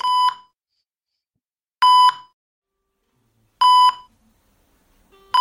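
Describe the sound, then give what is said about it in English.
An ICU monitor alarm beeps in a steady, repeating pattern, with bright electronic tones about every 1.8 seconds and silence between them. The beeps are loud, and no one speaks. “If you've ever been to an ICU, this is the sounds you may have heard.”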